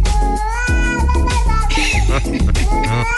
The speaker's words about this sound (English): and cats make some of the craziest noises, but this is musical. This is melodic. right?